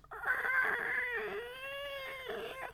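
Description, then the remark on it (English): A human voice imitates a gander goose's call with one sustained, strained, honking wail lasting a couple of seconds, with a wavering pitch that dips midway, loud. “I hear like this sound, right? I, I turn and I look. There's the fucking gander goose.”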